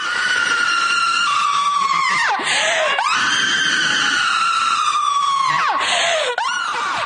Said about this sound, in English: Trans activist shrieks at San Francisco Board of Supervisors.